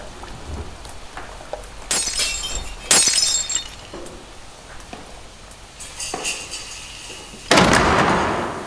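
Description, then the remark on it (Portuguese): Window glass cracks and shatters in several loud bursts at irregular intervals, with faint tinkling and crackling between them and no voices. “uma rachadura na parede, outro trincado no vidro da janela, mais um buraco no telhado.”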